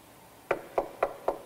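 Four firm, evenly spaced knocks on a door, clear, in a quick steady rhythm after a brief quiet moment, with no voices.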